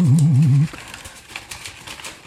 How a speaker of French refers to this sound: Vous pouvez entendre le papier craft, n'est-ce pas